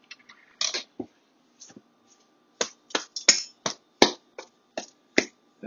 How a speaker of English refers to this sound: Now the first thing that I'm going to go ahead and do is I'm going to just punch the dough in the center to kind of deflate it a bit.